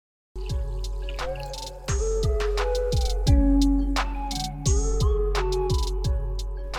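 A cork pops, then prosecco is poured with a steady run of gurgling, fizzing glugs that keep repeating, fairly loud, with no one talking.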